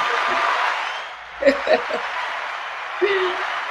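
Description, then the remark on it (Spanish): A steady wash of applause, an ovation sound effect played to welcome a guest, with a few brief vocal bursts and laughs rising over the clapping partway through. “Con gran ovación.”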